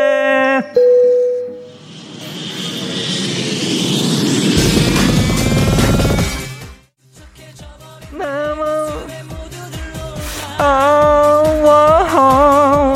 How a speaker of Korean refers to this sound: 자 그럼 그리스행 비행기 이륙합니다. 갑니다. Let's get it!